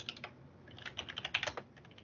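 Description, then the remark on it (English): Rapid clicking keystrokes from a mechanical keyboard, a quick irregular burst of sharp clacks, with no talking. “Oh, clickety clack, clack, clack, clack, clack, clack. Sorry, my mechanical keyboard.”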